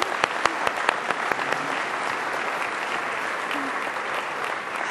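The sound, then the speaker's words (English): An audience applauds guest Laureen Harper before she is introduced, a dense wash of many hands with sharper individual claps popping out early on, holding at an even level for the whole stretch without fading. “I, didn't even get to introduce you before the applause broke out, so you're, you're very welcome here, as you can tell.”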